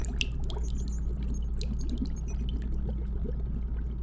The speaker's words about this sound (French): Lentement, il verse les gouttes d'argent dans l'eau, observant avec fascination la couleur changeante de la solution.